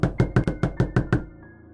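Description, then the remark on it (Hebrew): Seven rapid, heavy knocks pound on the door of a trailer in an even rhythm, loud, then the banging stops and a faint hum lingers. “פתאום נשמעת דפיקה חזקה על הדלת.”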